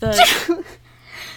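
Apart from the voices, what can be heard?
sneeze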